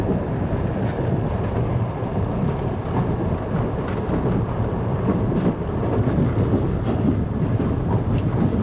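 A train rolls steadily along the rails with a continuous, heavy low rumble and faint rattling, loud throughout, with no voices.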